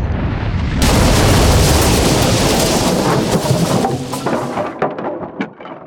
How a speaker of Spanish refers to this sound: De repente el buque de guerra se llenó de humo y lanzó el primer cañonazo contra el dique.